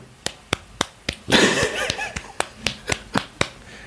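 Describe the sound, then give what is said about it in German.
A brief burst of steady, rhythmic hand claps, about a dozen sharp, crisp smacks in quick, even succession, with a moment of laughter rising over them partway through. “Kurz geklatscht.”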